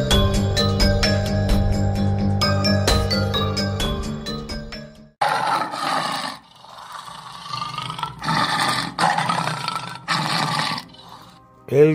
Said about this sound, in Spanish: rugido de un tigre, de una bestia, el mismo sonido que escuchaba Anton Sandor Lavey durante su juventud casi todos los días, porque él fue domador de tigres y de leones.